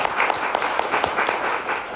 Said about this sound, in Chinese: 我想开始之前，先问各位，你是第一次来的，麻烦举个手，让我知道一下。来，我们给新朋友一个热烈的掌声。